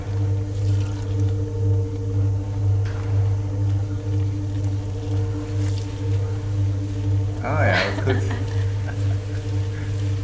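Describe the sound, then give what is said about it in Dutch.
A steady low mechanical hum of a kneading machine churns wet bread dough, with soft squishy, sloshing textures throughout and a brief burst of sharper noise near the end; a voice speaks briefly. “nu klinkt het dan nog echt heel erg nat.”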